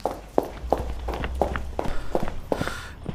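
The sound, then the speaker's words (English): A man and a woman come down the stone steps of a white courthouse on a dark town square, a steady series of hard heel clicks, roughly three per second, over a low background hum with no voices. “A man and a woman coming down the courthouse steps.”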